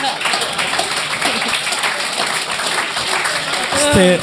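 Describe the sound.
An audience claps steadily, a dense, continuous patter of many hands that stays fairly even throughout, with a voice rising over it in the last moment.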